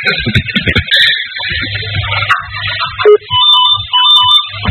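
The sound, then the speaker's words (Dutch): A telephone ringtone rings out, bright electronic tones repeating in a steady pattern, fairly loud, over a low background murmur. “je moet niet bellen hoor, de lijnen zijn bezeten”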